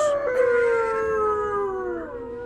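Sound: wolves howling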